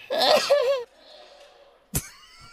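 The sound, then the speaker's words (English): A drawn-out, high-pitched vocal build-up fades into a quiet pause, then a single sharp, explosive sneeze bursts out, followed by a faint tonal hum. “that cannot be real. It's a real sneeze.”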